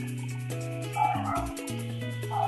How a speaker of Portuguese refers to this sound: Os cachorros. Caraca, os cachorros. Caraca, deu uma louca nos cachorros. É, não, pior que é uma casa só, mas tem vários cachorros.